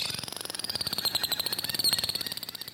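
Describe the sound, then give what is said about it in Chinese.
Dolphin calls: a rapid, buzzing train of clicks runs throughout, with a thin, high whistle-like tone drifting above it for nearly three seconds, with no talking. “欢迎我们今天的动物朋友，人类的好朋友海豚。”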